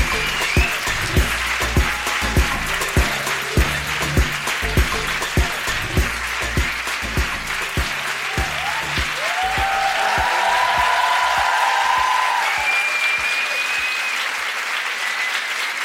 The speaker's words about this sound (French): J'ai l'impression qu'ils m'ont moins applaudi, moi, mais bon, je. Je sais pas comment le prendre. Ils sont au bord de la standing et vous n'avez rien dit encore.